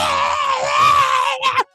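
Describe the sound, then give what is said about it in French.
A voice imitates a woman's scream: one loud, sustained high-pitched wail lasting over a second, rising slightly, then breaking into a short final cry before cutting off abruptly. “Et elle, tu l'entends juste crier, une espèce de.”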